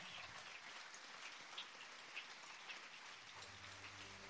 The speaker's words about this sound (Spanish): Este aplauso es para ti, Jesús, recíbelo